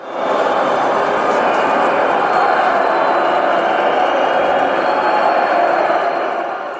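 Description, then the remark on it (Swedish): A steady wash of crowd murmur, stadium stand atmosphere sound played through the PA system during a match at Etihad Stadium, fills the whole stretch, dense and even like a packed stand, with no distinct voices standing out and no pauses. “Man har alltså testat då att, eh, att spela upp atmosfär, alltså läktaratmosfärljud genom eh, eh PA-systemet”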